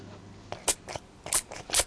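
Several quick, hissy spritzes from a spray bottle of rose water containing a small amount of natural rose oil, bright airy bursts in an uneven rhythm, with a couple of louder sprays near the end and no talking.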